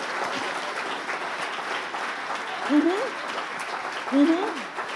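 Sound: audience applauding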